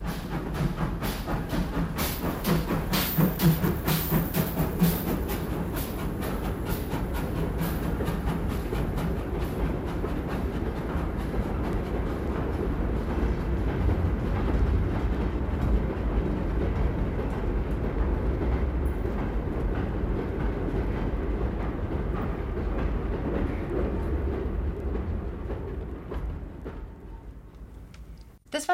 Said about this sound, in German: Und privat sammle ich außerdem noch Geräuschplatten, was leider bei uns noch viel zu wenig bekannt ist. Da gibt es herrliche Sachen in Stereo, wie zum Beispiel diese Eisenbahnfahrt.